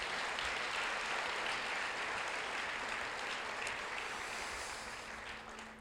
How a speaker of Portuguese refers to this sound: Você pode aplaudir o Senhor Jesus?